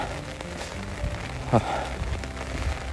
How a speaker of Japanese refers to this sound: うわすごい雨だな